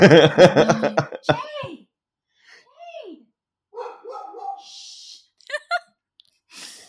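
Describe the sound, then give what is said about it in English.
A female dog barks loudly in a quick burst of several sharp barks, followed by quieter whines, yips and scattered fainter barks trailing off with gaps of near silence. “My dog is just not letting up.”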